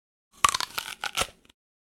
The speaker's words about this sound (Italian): afferra la mela e a sfregio la morde.